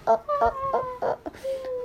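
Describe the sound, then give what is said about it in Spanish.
A person imitates a puppy's whimper: a few short, high, nasal whines in quick succession, then a longer drawn-out whine that trails off. “Como ¿Cómo hacen los perritos bebé?”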